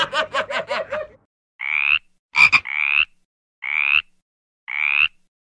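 A frog croaks loudly, starting with a quick rattling run of pulses, then giving several evenly spaced, drawn-out nasal croaks with short silences between them. No one speaks.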